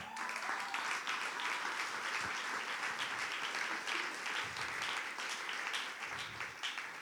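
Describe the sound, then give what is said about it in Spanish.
A crowd applauds steadily, a dense, continuous wash of many hands clapping at an even loudness throughout, with no voices standing out. “Ustedes me escuchan y me aplauden y yo me, me engolosino y sigo.”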